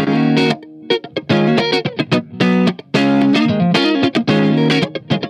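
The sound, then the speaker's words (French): Electric guitar played through an MV50 amplifier into a 412 AV cabinet, loud and distorted, strumming a riff of punchy chords with short gaps between bursts and bright, buzzing harmonics; no one talks. “Ça, c'est le euh, MV50. Sur le 412 AV.”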